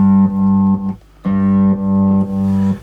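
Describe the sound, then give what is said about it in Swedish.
A sustained, buzzy electric guitar tone that cuts off abruptly into dead silence and snaps back just as sharply, the hard gating leaving clean, sudden edges around a short gap. “med liksom väldigt hård gate.”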